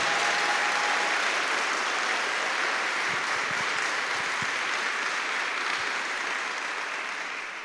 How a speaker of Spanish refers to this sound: Damos un fuerte aplauso al Señor Jesús. Ahora sí uno que se merezca al Señor Jesús. Fuerte ese aplauso para Él.